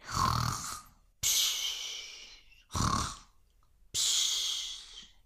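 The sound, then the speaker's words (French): Loud, heavy snoring of a tired ogre lying down to sleep, repeating in four slow breaths, raspy rumbling snores alternating with long airy exhales, with no talking. “il se mit à ronfler.”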